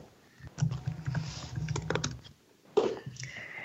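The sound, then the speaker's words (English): Rapid clicking of keys on a computer keyboard, a quick burst of typing that pauses briefly and then resumes, fairly quiet. “Okay, so I'm typing those.”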